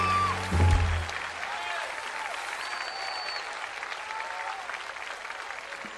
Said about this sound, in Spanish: Fuerte ese aplauso para el látigo Díaz.